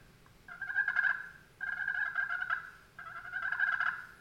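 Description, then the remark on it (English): Three steady turkey purrs played on a Jargon Turntable slate pot call: soft rolling trills, each lasting about a second, with brief pauses between them and no talking. “Uh, again, um, the the that's the turntable by Jargon, and that is just a really easy slate call to use.”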